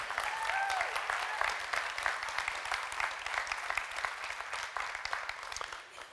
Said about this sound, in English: So, uh, let's just give Kelly a, a round of applause. Thank you.